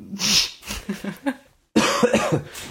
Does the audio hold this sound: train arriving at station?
no